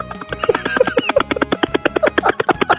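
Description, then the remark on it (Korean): A person on Park Myung-soo's Radio Show imitates a rescue helicopter going on a rescue with their voice, making a fast, steady chopping pulse like spinning rotor blades. It is loud, with no other talking. “구조를 하러 가는 헬기인데 아, 구조를 한번 해보겠습니다.”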